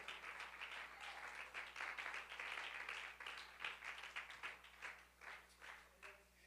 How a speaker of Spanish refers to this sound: Brindémosle ese aplauso al Rey con más júbilo en esta hora.